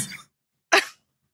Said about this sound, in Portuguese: Fui fazer uma graça, acho que espirrei demais.